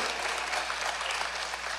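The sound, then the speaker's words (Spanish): A crowd in Morristown applauding steadily, with people at the back clapping louder; a dense wash of many hands clapping at an even, fairly loud level throughout, with no voices standing out. “Yo creo que la gente atrás se despertó también y aplaude más fuerte.”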